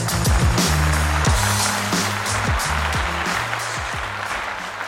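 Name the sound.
audience applauding and cheering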